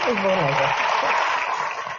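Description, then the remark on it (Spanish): Steady, dense applause from an audience at a ceremony, a minute of applause in honor of the writer Sergio Pitol, fills the whole clip at an even loudness, with a voice briefly audible over the clapping at the start. “De aplausos, un minuto de aplausos.”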